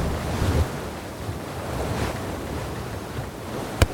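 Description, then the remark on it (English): Steady rush of ocean waves and gusting wind buffeting the microphone aboard a boat headed to Kortos, with a sharp brief knock near the end and no voices. “So yeah, we're on a boat headed to Kortos.”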